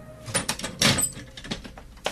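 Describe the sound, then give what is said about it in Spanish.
The glass door of a room is flung open with force, giving a loud rattling crash in the middle, surrounded by lighter clatters and a brief high squeak. No voices. “Los dos hombres flotaban en sus asientos pero en aquel instante eh, se abrió con fuerza la puerta de cristales de la sala.”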